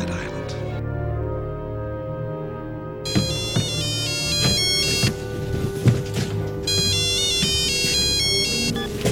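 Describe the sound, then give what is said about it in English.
A phone rings with a bright, electronic melodic ringtone that kicks in after a few seconds and repeats in steady bursts over a dense, murmuring background. “Charlie, take the phone to mommy now!”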